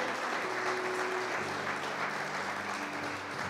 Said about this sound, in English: Come on, God deserves a clap for that.